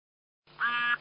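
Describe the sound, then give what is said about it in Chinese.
A single harsh, nasal duck quack rises out of silence and holds for about a third of a second, fairly loud and buzzy, with no voices. “你们家养鸭子的？”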